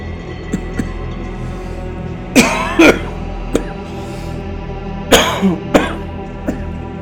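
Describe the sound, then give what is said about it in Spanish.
Harsh coughing comes in two bursts of a couple of coughs each, separated by a few seconds, over a steady low hum with no talking. “No, traigo una pinche tosecita siempre que me da toses.”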